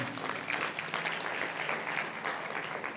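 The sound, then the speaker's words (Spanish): Loud, sustained audience applause for the Lord at a religious service, a dense wash of many hands clapping steadily for the full three seconds with no voices rising above it. “A un aplauso fuerte al Señor.”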